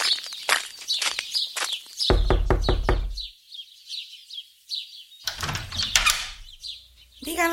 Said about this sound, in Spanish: Al llegar, dio unos golpes en la puerta y esperó a que le abrieran.